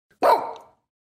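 One sharp, loud bark from a dog named Eugene, with a quick attack and a brief tail that fades within about half a second, then silence.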